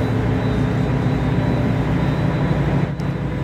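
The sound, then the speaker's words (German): A steady, loud low-frequency hum rumbles continuously with a broad mechanical drone, like engine or machinery vibration, holding constant throughout with no voices, while the floor vibrates. “Hier brummt's. Unter uns? Ja. Nee, der Boden uns. vibriert auch.”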